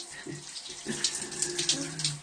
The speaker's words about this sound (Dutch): ik sta onder de douche.